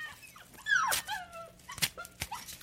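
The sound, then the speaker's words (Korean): A schnauzer named Nabagi, set on the reception desk table of an animal hospital in the evening after 8 p.m., whimpers softly, a few high, thin whines that slide downward in pitch, broken by short sharp yelps or snuffs. No one speaks. “나는 홀로 접수대에 앉아 어두워지는 바깥 풍경과 접수대 탁자에 올려놓은 슈나우저 나바기를 번갈아 바라보고 있었다.”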